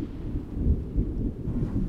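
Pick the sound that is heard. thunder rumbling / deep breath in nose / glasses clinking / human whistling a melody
thunder rumbling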